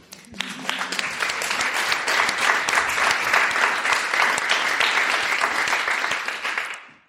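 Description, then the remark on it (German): Audience applause swells quickly into a steady, dense clatter of many hands clapping, holding at an even loud level for several seconds before tapering off at the end. “Ich würde sagen, auch das ist ein Applaus wert.”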